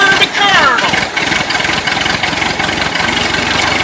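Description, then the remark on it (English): A tractor engine cranks and catches, then settles into a steady, rumbling idle with a rapid low chug, loud throughout. “fire up the tractor. Time to harvest”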